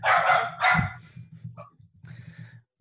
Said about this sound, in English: Uh, my dogs go off at UPS, and her dogs go off at UPS as well. Uh, Sorry, guys. so it, it, anytime you're on a podcast, you hear a dog in the back. It's probably mine, but this time it wasn't.